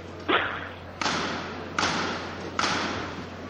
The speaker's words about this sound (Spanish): Ahí podemos escuchar la primera levantada del paso del misterio de Jesús entrando en Jerusalén.